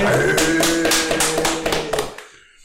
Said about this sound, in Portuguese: Parabéns, palmas.